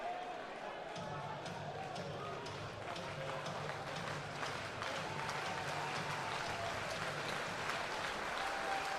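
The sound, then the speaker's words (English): A big hometown baseball stadium crowd rises to its feet, cheering and clapping as the visiting Cougars are down to their final strike, in a steady, dense roar that holds loud for the whole stretch, with a low hum running underneath. “The hometown crowd rising to their feet and cheering on Marshall as he goes for the win.”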